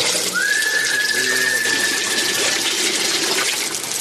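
A steady stream of urine splashes into a toilet bowl, a loud continuous hissing trickle lasting about four seconds, with a thin high whistling tone gliding in near the start.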